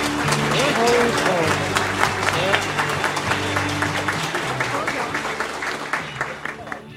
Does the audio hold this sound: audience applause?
yes